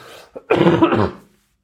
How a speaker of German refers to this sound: Also gerade immer abends bin ich äh, übelst am Rumhusten, also entsprechend erholsam sind meine Nächte nicht.